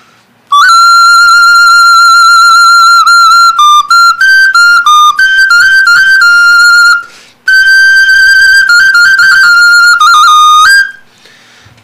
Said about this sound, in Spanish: Tenemos otra ocarina funeraria totihuacana, que tiene otro sonido.